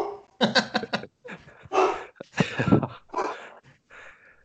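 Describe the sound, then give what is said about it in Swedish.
A person imitates an angry dog, letting out a rapid string of harsh, growly barks followed by several more snarling bursts, loud. “Nu har han en, eh, en arg vovve.”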